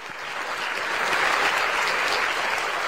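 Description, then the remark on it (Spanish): Steady applause from a crowd on the radio show Noche en Pelotas as a panelist is introduced, a dense wash of many hands clapping that swells slightly and holds at a fairly loud level throughout, with no voices standing out. “también espera los, aplausos.”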